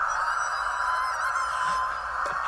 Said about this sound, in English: I got I got uh, I got Suarez screaming like a girl here, so uh, it's on my laptop. Sorry for a bad audio quality